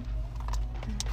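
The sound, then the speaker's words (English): A quick sneeze, a soft intake followed by a short, hissy burst of breath, over a steady low electrical hum. “Bless you.”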